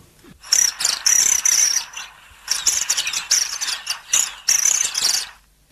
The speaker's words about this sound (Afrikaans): Want wat jy beskryf hier is duidelik die palmwindswaal, een van my gunsteling voels. Nou, so klink die palmwindswaal.